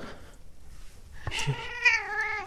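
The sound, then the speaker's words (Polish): A single drawn-out cat meow, moderately loud, rising then holding a wavering tone for about a second before trailing off, with no talking over it; the cat sits with a person recording a radio broadcast on New Year's Eve. “siedzę z kotem i nagrywam audycję.”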